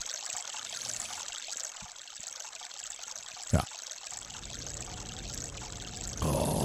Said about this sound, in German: So, wir machen mal wieder unseren schönen Bach, ja. Wir, wir mal wieder ein bisschen. Ach, ist das herrlich.